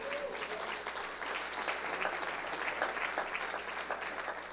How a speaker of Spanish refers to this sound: Ahora das un aplauso, Señor, por la vida de ella.